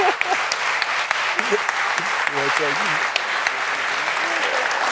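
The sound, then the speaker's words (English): An audience claps steadily for the whole stretch, a dense, continuous patter of many hands at an even loudness, with a few voices calling out briefly beneath it. “Everybody's clapping for you.”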